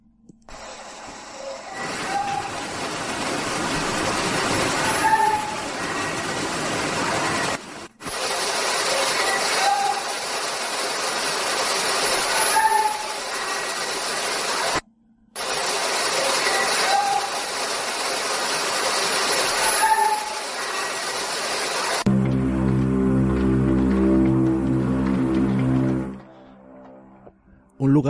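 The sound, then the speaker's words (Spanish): A psychophony, the first obtained in a house known as the house of the dungeons: a hissing, static-heavy recording, played three times with brief cutouts between, with an indistinct, muffled voice buried in the noise, then a low droning hum at the end. “pues si quieres, vamos, a, escuchar la primera psicofonía obtenida en esta casa de las mazmorras.”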